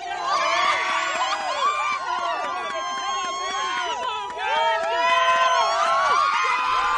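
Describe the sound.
A large crowd about three miles away from the launch cheers and shouts continuously as Space Shuttle Discovery lifts off, many excited voices overlapping in high-pitched whoops and yells, loud, building again toward the end.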